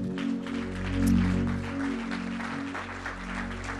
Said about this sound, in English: Why don't you clap your hands into the Lord?